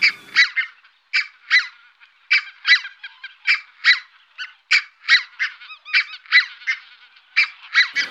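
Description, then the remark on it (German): A flock of thousands of geese honking, a steady stream of overlapping calls that rise and fall in quick rhythm, loud, with no voices. “Der Ruf der Rotheitsgänse ist auch besonders, aber wenn man jetzt so tausende Gänse hört, dann fällt der Ruf natürlich eher nicht so auf.”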